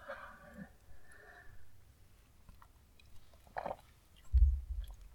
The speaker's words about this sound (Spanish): Y pausa para trago de café y empezar.